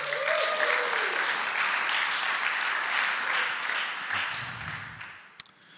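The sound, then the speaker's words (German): Sustained audience applause for two people being thanked, a dense wash of many hands clapping steadily for several seconds before thinning out, with a brief sharp knock near the end. “Danke euch beiden, Applaus für euch beiden.”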